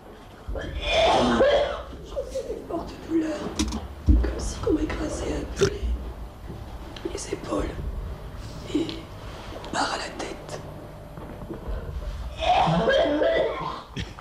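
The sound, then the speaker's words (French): Someone coughs violently and repeatedly, loud, with harsh hacking bursts in clusters at the start and end and strained gasps and throat sounds between them. “Je me mets à tousser violemment, je perds la voix, je peux même rester bloqué d'une jambe.”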